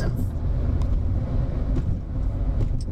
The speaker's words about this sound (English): Pardon the noise, we are in a car